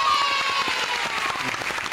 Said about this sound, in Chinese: 我真的觉得刚才每一位都是舞王舞后，你们的节奏感、律动感真的超级棒的，再给你们一点掌声啊！